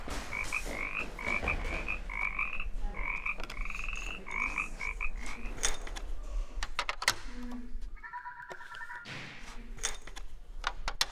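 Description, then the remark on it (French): A fennec fox yelps in rapid bursts of short, high, squeaky calls, then gives a few longer tonal cries over a steady low background hum. No one speaks. “Le fennec glapit.”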